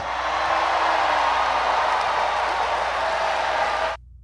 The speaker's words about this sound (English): Okay, and there's everybody cheering, and President Clinton is sitting right there.